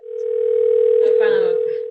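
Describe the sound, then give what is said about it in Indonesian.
A steady, loud phone dialing tone hums continuously for the whole stretch as a friend is called, with faint voices murmuring underneath it. “Coba kita kita telepon salah satu ya.”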